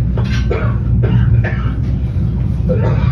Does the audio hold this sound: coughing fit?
yes